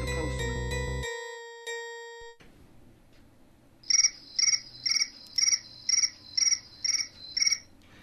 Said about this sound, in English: That's the crickets for you